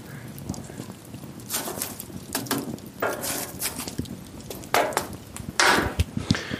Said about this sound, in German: Müssen wir das hier alles mal noch zurechtschieben, dass es eine schöne Glut gibt.